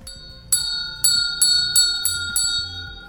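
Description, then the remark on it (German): The Grind University school bell rings out with six bright, quick strikes, each tone sustaining and overlapping the next. Loud, heard on its own with no talking. “Das war die Grind University Glocke.”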